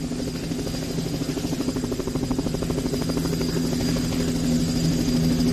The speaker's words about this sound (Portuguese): Se você está acostumado a reconhecer essa canção lá pela parte do helicóptero, você está na verdade confundindo essa música